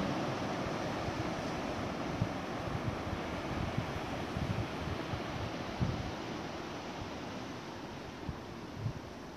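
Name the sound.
ocean waves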